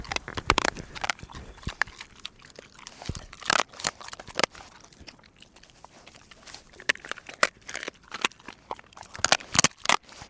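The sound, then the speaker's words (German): A dog gnaws on the bone of a rabbit leg, its share of the prey, producing irregular bursts of sharp crunching and cracking between softer wet chewing sounds, with no talking. “Hinterher bekommt auch der Hund seinen Anteil an der Beute, den Knochen der Keule.”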